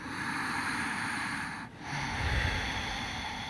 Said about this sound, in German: da gibt's so ein röchelndes Atmen, das ist die Ujjayi-Atmung. Ne? Mhm. Dadurch, dadurch kommen wir noch ein bisschen tiefer bei uns an.